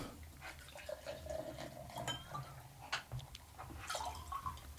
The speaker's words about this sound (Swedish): Ska vi se här om vi kan få någon kaskadhällning med den med lustglas då. Igen. Mm. Öppnar den här med eh, lustglas. Jag häller upp i ett glas bara för att se om det blir snyggt.